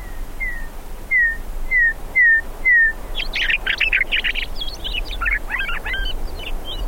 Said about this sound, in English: You haven't heard a bird till you've heard a meadowlark. And you once you hear that, you never forget that.